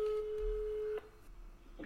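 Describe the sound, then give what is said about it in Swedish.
A phone's ringing tone on an outgoing call to call someone back: one steady, low electronic beep lasting about a second, then a quiet open line with faint background hiss. No one speaks. “Jag får bara vänta, jag måste ringa upp.”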